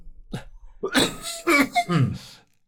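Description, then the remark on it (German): A short run of harsh coughs: a small one first, then several rougher bursts in quick succession, fading out after a couple of seconds. “Entschuldigung, einen Moment, ich muss mal ganz kurz äh, husten.”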